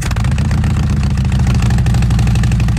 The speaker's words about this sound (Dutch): Eh, dit is een uh, Reinhard uitlaat.